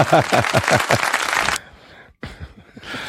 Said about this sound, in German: unser Publikum ist wieder ein bisschen immer noch oder was? das Publikum ist so gelangweilt, das äh, klatscht einfach völlig unpassend.